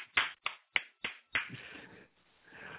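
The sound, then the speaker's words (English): Five sharp hand claps in a quick, steady rhythm, each a crisp slap, followed by a softer, ragged stretch of noise as the clapping stops. “Here's a clap for you, my friend.”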